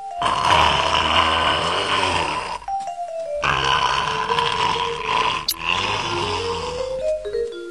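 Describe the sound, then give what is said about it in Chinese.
A wild boar snores loudly in three long, rough, rasping breaths, each lasting about two seconds, separated by short pauses where faint falling tones sound. “哎呀，野猪睡觉怎么会发出这么响的呼噜声？”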